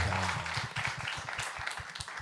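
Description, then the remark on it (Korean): A small group applauds for all the Korean people working there, hands clapping in a quick, uneven patter that fills the whole stretch at a steady moderate loudness, with a brief low murmur of voices at the start. “한국 분들에서 박수 한번 쳐주세요.”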